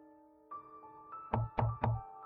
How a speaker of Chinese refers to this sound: 正当安然还在沉思中的时候，突然有人在门外敲门。